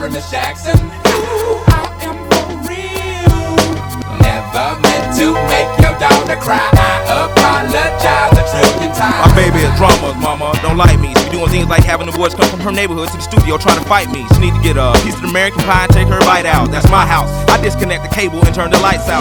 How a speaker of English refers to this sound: talking about how annoyed he got listening to it on the radio, and he brings it on for intro music on the show.